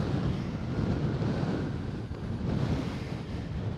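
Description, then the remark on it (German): Steady wind on a windy day roars and buffets the microphone continuously, a loud, low rumbling gust noise with no pauses and no voices. “Auch heute ist wieder so ein windiger Wind. Ein windiger Wind, ein windiger Tag.”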